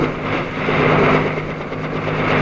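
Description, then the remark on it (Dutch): A loud aircraft engine drones steadily with a rough, uneven edge as its ignition begins to stutter and misfire while the plane flies low to land by a farmhouse, filling the whole stretch with no voices. “Ontsteking begint te stotteren.”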